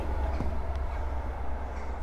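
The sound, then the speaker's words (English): A train rumbles and rattles steadily along an old track laid by Isambard, on a sunny day with a cloudless blue sky, a continuous loud low-frequency roar with faint metallic clacks, with no one speaking. “That's the sound of a train rattling down the old track that uh, Isambard laid many years ago.”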